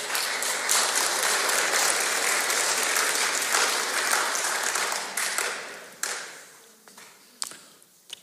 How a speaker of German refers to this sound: Schöner kleiner Applaus war das.